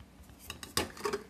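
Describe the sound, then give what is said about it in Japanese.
Several bright metallic clinks of a spoon against a cup as someone makes coffee. The uneven taps cluster together with a stronger clack near the middle, against a faint background with no talking. “あちょっと喉乾いたなと思って喋ってたら 喉乾いたからちょっと、うん、コーヒーでも作ろうかなとね、えー、いうふうになってですね今ちょっとコーヒーを作ってるんですけど、えー”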